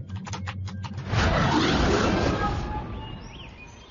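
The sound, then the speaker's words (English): A quick run of keyboard taps clicks out in the first second as commands are typed into a ship's computer, followed by a loud, sustained electronic whoosh that slowly fades under faint high chirps. “She lifted a keyboard onto her lap, tapped in some commands, and started to view the information that had been loaded into the ship's computer.”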